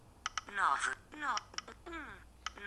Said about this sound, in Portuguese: entretanto, eh, com isto tudo e conforme eu estou a eh, digitar, como estou a digitar o número em vez de ir aos contactos, só por uma questão de ser mais rápido, depois.